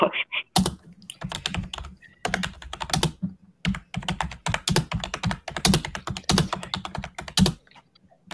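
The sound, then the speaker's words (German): Rapid clicking of computer keyboard keys, arriving in irregular bursts with brief pauses, crisp and fairly loud, with no voices over it. “ist gerade am Tippen”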